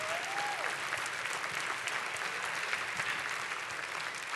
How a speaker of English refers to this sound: Y'all ought to be clapping the house down, friend. My gracious alive.